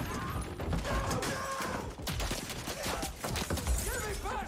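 Dense, rapid bursts of machine gun fire in a Vietnam War video game, with soldiers firing from a house as war tanks arrive, crackle continuously amid a busy, loud wash of mechanical clatter and battle noise, with no clear pauses.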